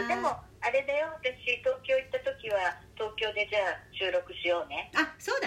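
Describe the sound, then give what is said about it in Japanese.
Speech recorded over the telephone with a thin, band-limited quality: two people, one in Tokyo and one in Naha, Okinawa, talk back and forth in Japanese, with a low steady hum underneath and the voices sounding slightly compressed and boxy. “電話を通してになりますのでお聞き苦しいところもね、あるかもしれませんが、すいませんが、お付き合いください”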